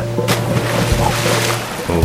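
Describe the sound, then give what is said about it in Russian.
A boat sets off across the water, a steady low hum under a continuous rushing wash, with a brief splashy burst near the start. “С удовольствием прокачу вас на волшебной лодке и все покажу.”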